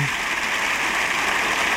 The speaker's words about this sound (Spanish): Vamos a ver quién eh, replica, como tú dices, si es el candidato socialista Pedro Sánchez, mientras prosiguen los aplausos de los diputados del Partido Popular y Alberto Núñez Feijóo saluda.